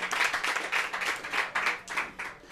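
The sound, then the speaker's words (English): A team gives itself a round of applause: many hands clapping in a dense, steady wash with rhythmic swells, fairly loud and sustained for a couple of seconds, with no talking over it. “So give yourselves a, line, a round of applause.”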